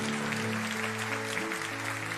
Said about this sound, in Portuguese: Aplauda o Senhor, aleluia.